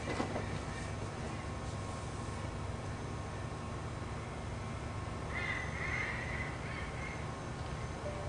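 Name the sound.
crow cawing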